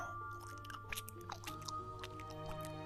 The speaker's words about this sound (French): De la bave coulait de ses mandibules avec un bruit écœurant.